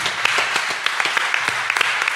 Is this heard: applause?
yes